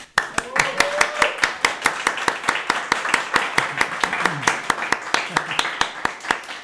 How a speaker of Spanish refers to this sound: ¡Aplausos!